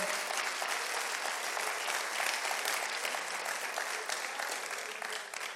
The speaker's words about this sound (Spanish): Una persona lo entendió, gloria a Dios. ¿Cuántos si usted lo entendió, déle aplauso al Señor.